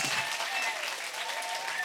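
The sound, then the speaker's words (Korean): A church audience claps together during a sermon in a steady, dense wash of applause that holds at an even loudness for the whole stretch, with no talking over it. “이렇게 또 박수만 치고 또 돌아갈 땐 다른 얼굴 하고 가면 안 돼.”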